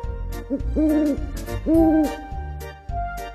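An owl hoots twice, each call a low, steady, drawn-out hoo lasting about half a second, clear over a faint, continuous background hum.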